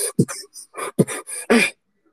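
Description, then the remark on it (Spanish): Vocal beatboxing: a short run of mouth-made kick drum thumps mixed with sharp, breathy inhaled sounds, ending on a longer hissing breath, with no talking. “es como si bombo, pero metes el bombo con el segundo sonido, con el segundo respiración, pues metes el bombo.”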